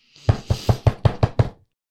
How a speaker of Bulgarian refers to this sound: Приятно почукване ги извади от недоумението им. Щом се обърнаха в посоката, от която се чуваше потропването, видяха калвач, който беше малко странен. Странен, защото на главата си имаше каска.